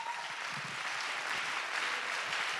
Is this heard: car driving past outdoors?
no